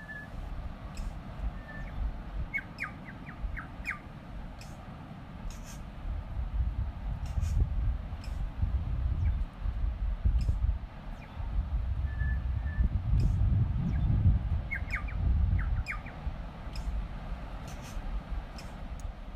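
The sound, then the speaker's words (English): Scattered bird calls, short whistles and chirps in brief clusters, ring out close by at the tree line above a beach, over a steady low roar of surf and wind; the birds were thought to be tui. No one speaks. “Now, the birds that are actually just close by there, I actually thought they were tuis, and we stood there for a long time to see where they were.”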